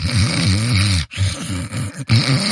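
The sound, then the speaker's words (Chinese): A person imitates the snoring breath sounds of someone just falling asleep with their voice: three loud, rough, buzzing snore sounds in a row, each with brief pauses between them, and no other talking. “这这时候也在打呼噜，就呼吸声。”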